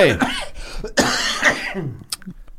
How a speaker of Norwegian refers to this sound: Det er jo hjelper ikke Dr. Pepperen på hosten, altså? Eh, det er, det er, det er det med ting som er i lungene.